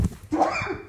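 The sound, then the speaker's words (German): A single short sneeze: a sharp, explosive burst of breath with a brief voiced, slightly nasal tail that fades quickly. No one speaks. “Oder war das ein Hüsterchen? Das war ein Nieser.”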